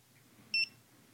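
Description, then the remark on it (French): One short, high electronic beep, clear, a chirp from a small gadget lying on a desk, sounding alone against a faint low background hum. “Donc là, ça fait plus qu'un bip, ça fait pas bip bip. Là, ça fait un bip.”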